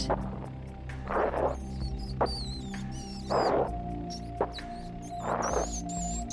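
A rat squeaks in thin, high chirps over a low steady hum, while three bursts of scratchy scurrying rustle by at regular intervals, with a few sharp clicks between them.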